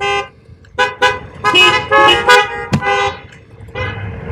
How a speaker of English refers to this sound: And we beat and we beep our horns. This is what we do.